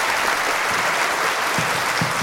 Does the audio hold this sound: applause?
yes